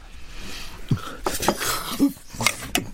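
Several sharp clinks and clatters of plates of jajangmyeon, jjamppong and sweet-and-sour pork being set down in a quick irregular sequence, with faint room noise between the knocks.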